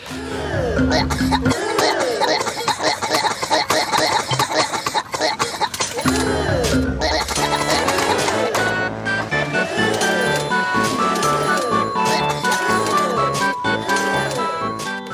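Warped, slightly eerie distorted ride music from a theme park video game attraction plays throughout, loud and continuous, with exaggerated gagging and vomiting sounds breaking in at intervals, their pitch sliding up and down.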